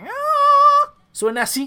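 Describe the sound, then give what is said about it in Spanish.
A voice imitates nasal, high-pitched metal singing that leans on the nose to reach the high notes, holding one bright, sustained note for nearly a second, then breaks off into a short spoken phrase. “Entonces apoya en la nariz y suena así como que...”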